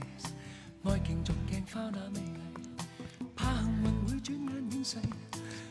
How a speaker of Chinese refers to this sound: 这不是混响，这是全民 K 歌的耳返，这是全民 K 歌的耳返